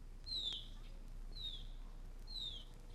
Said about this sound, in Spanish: Aire puro y pajaritos.